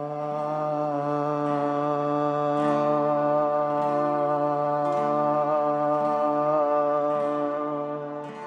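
Several voices hold a long, steady open 'ah' vowel in unison, flowing on from a hum: a rich droning chant with layered harmonics that stays even and sustained for the whole stretch, with no talking.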